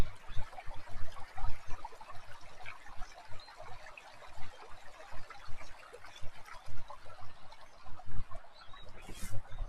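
Water flows steadily at a spring where it wells up from a water source, a continuous babbling rush, while faint high chirps of birds, frogs and cicadas flicker above it throughout, on a mild day of about 20°C.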